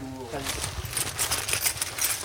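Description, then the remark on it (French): A bunch of keys with a badge jangles backstage in a quick run of bright metallic clinks and rattles, following a brief murmur of a voice at the start. “Alors, le trousseau de clés, le badge, les toki.”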